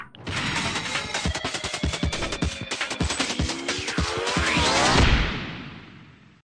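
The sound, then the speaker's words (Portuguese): A loud, busy jingle stinger of rapid percussive hits and sweeping whooshes builds for about five seconds, peaks in a final crash, then quickly fades out. No one speaks. “chama a vinheta!”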